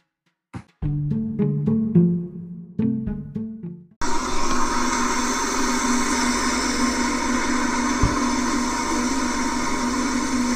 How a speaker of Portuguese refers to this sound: Depois de tanto falarmos sobre a crise hídrica, nada melhor que o barulho de chuva que vocês acabaram de escutar. Bom, esse barulho é de uma chuva especial, de uma tempestade no deserto.